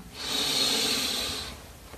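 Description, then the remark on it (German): A single long, deep inhalation drawn in through the nose, steady, lasting about a second and a half before fading out, with no talking, taken during a guided meditation. “Wir nehmen zusammen einen tiefen Atemzug und atmen ein.”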